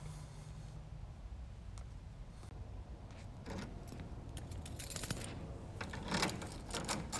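Metallic clicks and rattling of locks turning in a big door, several in quick succession, filling the room over a low steady background hum with no voices.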